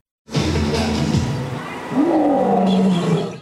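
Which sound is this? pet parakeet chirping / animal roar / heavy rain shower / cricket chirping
animal roar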